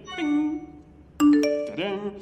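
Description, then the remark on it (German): A bright electronic mobile phone message notification chime plays a short series of clear, ringing tones, a soft one first and then a louder rising cluster, with no one speaking. “Jemand hat mir geschrieben.”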